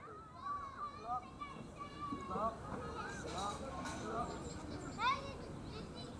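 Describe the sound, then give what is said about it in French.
Children's high, lively voices call and squeal over a steady outdoor hum, with a sharper cry rising near the end, from children playing in a children's park by the riverbanks at the Quai de la Dorade in a big city. “Là, on est au quai de la Dorade, près des berges. Il y a un parc à enfants, il y a des enfants qui jouent, il y a des étendues de verdure, il y a des arbres, il y a le cours d'eau juste à côté avec un bateau euh, pour euh, les excursions.”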